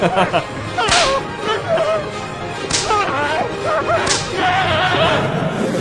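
Three sharp, loud whip cracks snap out at uneven intervals, each a bright sudden lash, over a steady bed of murmuring voices and tonal background sound.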